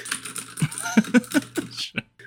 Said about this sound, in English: Furious typing sounds.